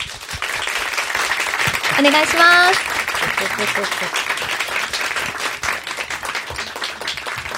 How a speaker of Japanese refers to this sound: 拍手でお迎えください。